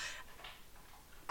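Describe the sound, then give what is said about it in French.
A dog that has just got up to eat crunches dry kibble, a handful of crisp, irregular crunches, fairly quiet, with no talking over them. “ça tente de croquer ses croquettes genre le plus fort possible ever.”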